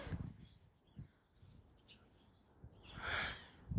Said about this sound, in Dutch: Niks. Vogels en de wind. en een hele enthousiaste duif.